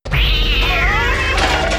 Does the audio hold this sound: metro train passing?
no